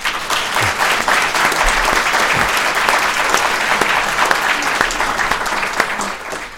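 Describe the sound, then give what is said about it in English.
A crowd claps steadily in sustained applause, dense and fairly loud throughout, with the many overlapping claps forming a continuous wash of sound before it begins to fade at the end. “Let's hear it.”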